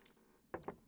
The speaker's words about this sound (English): I'm going to take a sip and let you just chew on that for a mere moment.